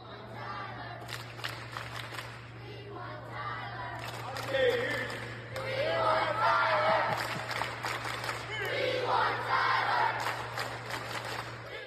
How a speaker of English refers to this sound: this viral moment when Mike Woodson led his basketball campers in a We Want Tyler chant with … in Assembly Hall.